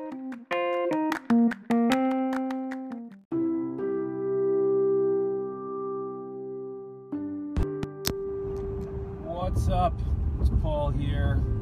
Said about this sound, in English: I'm actually in the car uh, again, but uh, I'm, uh, I'm driving to another meeting.